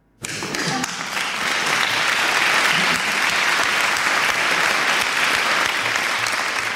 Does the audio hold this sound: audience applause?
yes